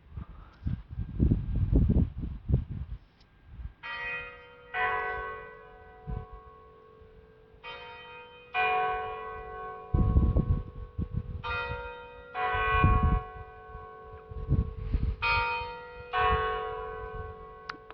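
Strasbourg Cathedral bells ring out in a steady series of overlapping peals over gusts of low, rumbling wind, with no voices present.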